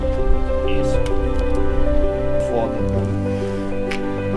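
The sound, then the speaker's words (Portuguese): Water sloshes and squishes inside a homemade 17-kilogram barbell made of water-filled PET bottles on a broomstick as it's shifted about, with a few soft drip-like splashes, partly under a man's voice talking. “Ela a barra d'água que ele ela fez.”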